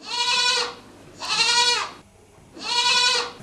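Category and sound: animal, goats bleating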